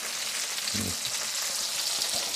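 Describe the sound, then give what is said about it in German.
Onions simmering in white wine give a steady, dense crackle and hiss with a few soft low bubbling pops, constant and fairly loud throughout, with no talking. “Braucht das gerade noch ein bisschen das muss mal ein bisschen putzeln mit dem Weißwein, weil die Zwiebel ist mit Weißwein nicht gelöscht, dann kommt Sahne dazu.”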